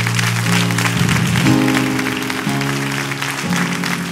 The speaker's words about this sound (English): Could you clap your hands and say, Amen? Amen. Come on, like you mean it.